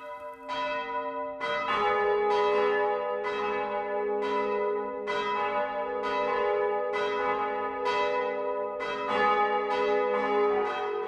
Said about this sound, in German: BR Heimat, 12 Uhr läuten. Es ist 12 Uhr. Das Mittagsläuten kommt heute von der evangelisch-lutherischen Salvatorkirche in Schweinfurt.